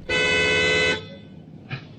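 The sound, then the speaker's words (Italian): A very sensitive car horn, touched lightly with an elbow, blares in one sustained, loud honk lasting almost a second, then cuts off, followed by quiet room tone and a faint brief sound near the end. “Ah sì, ho appoggiato appena il gomito. È un clacson sensibilissimo.”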